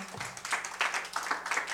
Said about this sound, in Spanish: Qué precioso. Démosle un aplauso al Señor, por favor.